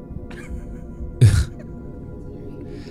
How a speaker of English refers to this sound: now it's funny though because excuse me while i clear my throat